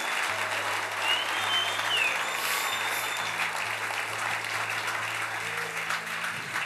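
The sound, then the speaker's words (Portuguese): A church audience breaks into loud, sustained applause for Jesus, dense clapping filling the whole stretch at a steady level, with a low sustained organ or keyboard tone underneath and faint crowd voices. “Aplauda ele bem forte.”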